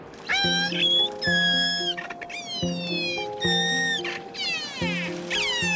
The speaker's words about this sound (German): Wie andere Wale kommunizieren sie nämlich viel über Schall, über Klickgeräusche und Pfeiftöne.